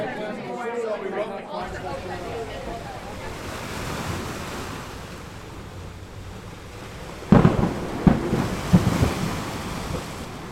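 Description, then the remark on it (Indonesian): A steady roar of stormy wind and crashing surf from a sudden big storm at sea, broken near the end by several sharp, loud thunder-like cracks, with a voice speaking briefly at the start. “Namun di tengah laut, tiba-tiba badai besar datang.”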